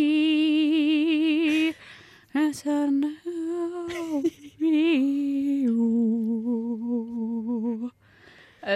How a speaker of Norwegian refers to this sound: Veldig fin sang, da.